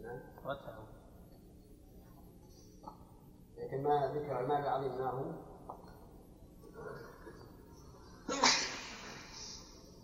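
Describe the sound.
A single sharp sneeze bursts out near the end, following stretches of muffled voices talking.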